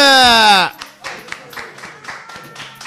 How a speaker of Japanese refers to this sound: どうぞ拍手のお迎えください